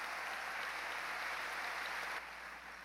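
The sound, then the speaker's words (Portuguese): A church audience claps together in sustained, dense applause to the Lord at an evening service, steady for a couple of seconds before dropping slightly in volume near the end. “Quem pode dar um grande aplauso nessa noite ao Senhor?”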